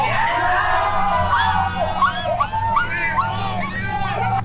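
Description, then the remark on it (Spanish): A woman's voice imitates a dog, making a run of high, wavering yelps and whines that rise and fall in quick succession over a steady low background hum. “¿Por qué le hizo como perrito, güey?”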